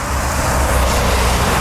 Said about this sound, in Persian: همون موقع یه ماشین با سرعت رد شد و همه آبا رو پاشید به همون